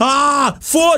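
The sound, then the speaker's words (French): A loud, drawn-out exaggerated yawn: a long voiced 'aaah' that sags in pitch and trails off, followed by a shorter, breathier second yawn. “J'ai le droit de bailler si je veux.”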